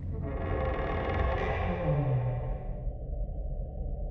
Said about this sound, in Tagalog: Maya-maya pa ay narinig kong umungot ang pintuan ng banyo. Dahan-dahan itong bumukas.